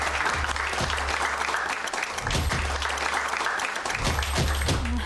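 An audience applauds steadily, a dense continuous patter of many hands clapping at a fairly loud, even level throughout, with no voices standing out.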